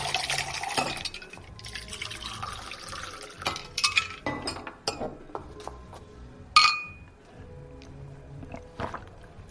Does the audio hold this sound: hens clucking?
no